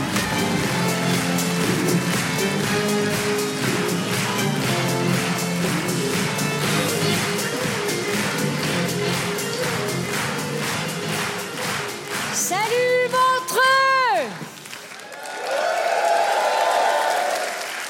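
Sustained audience applause with cheering at the Montre Comédie show, welcoming the comedian La Bajon, dense and loud, with a brief rising whistle-like tone sweep near the end before the clapping swells again.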